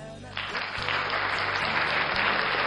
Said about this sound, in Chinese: 把掌声送给各位。